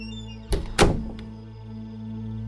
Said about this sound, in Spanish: decidí volver a mi cuarto. Al entrar, cerré la puerta atrás de mí